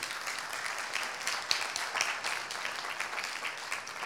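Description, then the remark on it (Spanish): A crowd applauds steadily as an offering of applause to the Lord, a dense wash of many hands clapping together at moderate volume, sustained without pause and with no voices standing out. “Dele una ofrenda de palmas al rey.”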